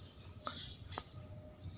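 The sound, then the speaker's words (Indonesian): Quiet outdoor ambience with a couple of short, sharp bird chirps and faint high twittering; no one is speaking. “Sebagaimana mungkin yang teman-teman dengar di podcast atau yang langsung di sini, burung-burung sudah pada berkicau ya.”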